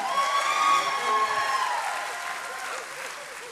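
An audience at a church service breaks into steady applause, a dense wash of clapping with a few cheers mixed in, strong at first and gradually thinning out over a few seconds.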